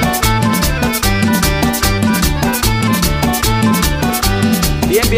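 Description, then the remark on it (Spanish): An accordion plays a lively, steady tune over a bouncing bass rhythm for a partner dance, loud and continuous with dense sustained reedy harmonies and no voices. “Y otra vez el acordeón.”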